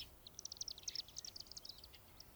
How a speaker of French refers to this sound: Il est 5 heures. Les premiers martinets commencent doucement à crépiter dans le ciel.